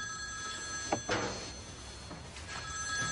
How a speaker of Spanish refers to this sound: coge el teléfono. ¿Sí?